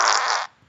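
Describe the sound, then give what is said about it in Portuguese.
A loud fart blasts straight into the microphone for about half a second, then a brief silence before another short burst begins. “Você acabou de peidar no.”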